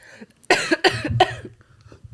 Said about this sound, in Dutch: Wacht, even hoesten nog.